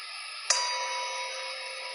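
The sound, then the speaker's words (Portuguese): A single bright bell strike lands over the lingering hum of an earlier ring, then its layered metallic tones sustain evenly and slowly fade. It sounds like a meditation bell, with no voices. “segue o sino.”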